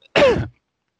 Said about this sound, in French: Je vais tousser un coup, pardon